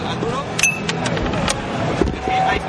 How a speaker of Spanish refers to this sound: eso, eso que se oye es un, es un duro. está jugando ah,